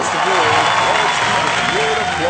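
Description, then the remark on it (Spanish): An audience claps steadily and loudly throughout for the jury of the third Reina de las Flores pageant of San Francisco de la Unión de Abarroteros del Pueblo, AC, a dense unbroken patter of many hands, with a few voices calling out over the applause. “Pero antes que nada, demos un aplauso a nuestro jurado.”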